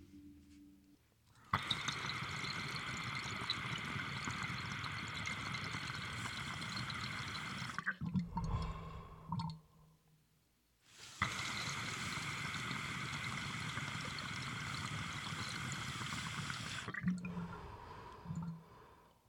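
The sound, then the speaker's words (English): Two long, steady pulls on a dab rig, each a loud, continuous gurgle of bubbling water lasting several seconds, separated by a brief pause with faint clinks and breathing. “Anyway, dab time.”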